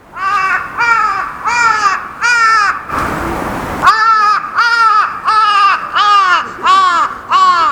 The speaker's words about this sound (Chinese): 这个声音其实我觉得在台湾应该不太常听到，但是呢，我们到日本去玩的时候都会听到，而且看到那个鸟就像是个乌鸦一样，只是它超级大只的。